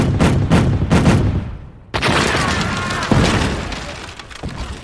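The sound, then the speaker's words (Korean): Cannon fire from a Korean hyeonja chongtong cannon aimed at the remaining enemy ships in a naval battle: a quick run of heavy booms, then a sudden loud blast trailing into a long crackling rumble, followed by another sharp blast. No one speaks. “남아있는 적선을 향해 현자 총통을 발사라!”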